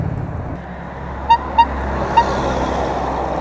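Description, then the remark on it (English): Three short, high-pitched toots from a small bicycle horn, two quick ones then a third after a pause, sounding over a steady rumble of road traffic. “That was my little horn there, by the way.”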